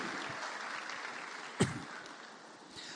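An audience applauds the Lord steadily after a prayer, a dense, continuous wash of many hands clapping at moderate volume, with one sharper, louder smack standing out about halfway through.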